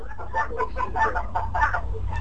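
Roosters crowing and calling in a steady series of short, harmonic bursts, moderately loud, over a low background hum with no other sounds on top, heard in the background of a caller's line.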